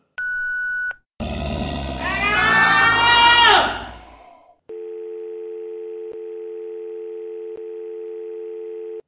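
A brief beep, then a loud burst of crackling, warbling static on a phone line that rises and fades, followed by a steady, continuous dial tone. No one speaks.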